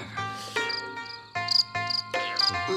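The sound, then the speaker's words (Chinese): Short, high-pitched cricket chirps come in quick pulsed bursts several times, sounding over a steady, droning musical tone with no voices. “蟋蟀还没有斗输赢，先看其外貌，如金丝蛾、墨红牙、琵琶刺，都是赌徒眼中的极品。”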